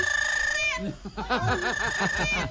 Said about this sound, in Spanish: No, ahí vea este el loro es muy grosero.